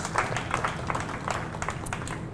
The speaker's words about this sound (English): The Lord deserves a round of applause.